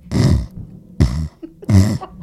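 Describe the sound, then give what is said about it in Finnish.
A person imitates a woman who could not get oxygen, gasping for air with three loud, strained, croaking breaths in quick succession, each a harsh, rasping gulp separated by brief pauses. “Ei, kun se nainen, kun se ei saanut happea, niin se kuulosti tältä.”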